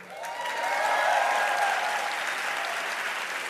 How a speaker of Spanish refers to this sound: aplaudido la mitad del teatro. Eh, ¿No? Así está España.